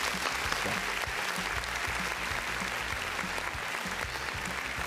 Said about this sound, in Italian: Grande. Un altro applauso, vai.